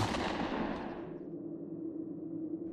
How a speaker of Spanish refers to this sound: La situación se prolongó por varios minutos, hasta que, harto de ver el mismo comportamiento, disparé en esa dirección.